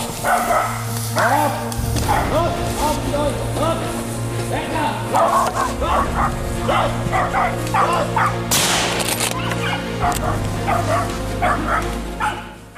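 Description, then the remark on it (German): Hunting dogs bay insistently at a cornered wild boar during a hunt, a steady run of loud, repeated barks and yelps for the whole stretch, with some indistinct voices mixed underneath. “der gibt dir ganz komisch vor meinem Stand Standlaut”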